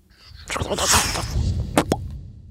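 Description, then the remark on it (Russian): A sci-fi time-jump effect: a loud, swirling whoosh surges up and trails off, then two quick sharp pops with a short rising zip close it out. No one speaks. “Ненавижу эти скачки во времени.”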